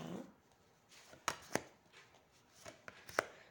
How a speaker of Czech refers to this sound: A já už se dívám na vaši fotku, míchám to karty